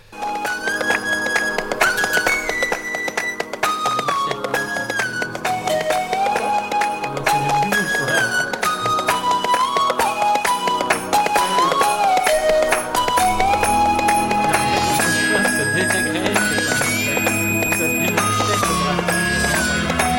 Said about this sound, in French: Mets un petit jingle quand même, le temps que je prépare mes trucs.